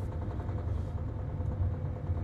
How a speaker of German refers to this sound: Sag einmal, der Motor nackelt der alleweil noch? Ja, der nackelt nicht. Und ob der nackelt, hör doch einmal. Der nackelt. Nackelt der oder nackelt der nicht?